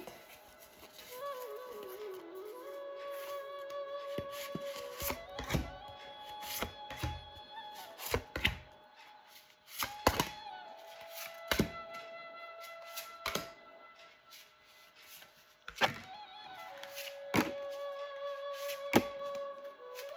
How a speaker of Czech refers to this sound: A já už se dívám na vaši fotku, míchám u toho karty a my se spolu podíváme, co nám Tarot poví o roce 2023.